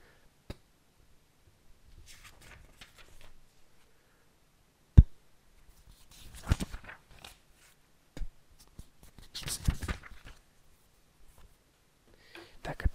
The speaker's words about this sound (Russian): Плевок на пальцы при переворачивании на странице.